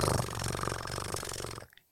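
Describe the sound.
A person imitates a cat's purr with a low, continuous rumbling buzz lasting under two seconds, fairly loud and steady before it cuts off into silence.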